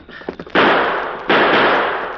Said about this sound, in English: Oh, my hand. You're not hurt. I just shot your gun away.